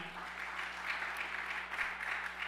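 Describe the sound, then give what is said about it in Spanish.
An audience applauds the Lord steadily, a dense, sustained wash of many hands clapping at an even loudness with no voices standing out, continuing unbroken throughout. “De un aplauso fuerte al Señor.”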